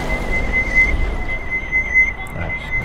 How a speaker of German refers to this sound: Dieses Piepsen treibt mich noch zum Wahnsinn.